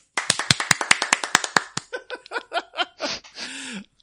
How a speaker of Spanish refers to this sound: Gracias, un aplauso.